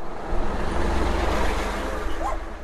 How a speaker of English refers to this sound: So that's where the bus stopped. This audio is from recordings the group made that day.